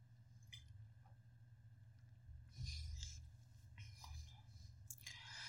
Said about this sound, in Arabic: ثواني بقى نشرب بقى ميه عشان نقدر ايه نكمل